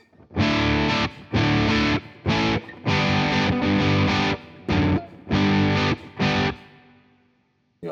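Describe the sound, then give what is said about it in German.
Heavily distorted electric guitar through a booster pedal, with the Tube Screamer switched off, playing loud, thick chugging chords in short bursts separated by brief pauses, with a ringing tail fading into quiet at the end. “Wenn wir jetzt mal den Typ Screamer ausschalten, nehmen dafür den Booster.”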